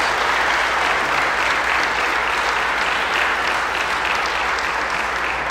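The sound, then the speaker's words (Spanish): An audience applauds the Lord loudly and steadily, a dense wash of many hands clapping at once that holds its level for the full few seconds with no voices standing out. “Dale fuerte el aplauso al Señor que lo merece, hermanos, Gloria a Dios.”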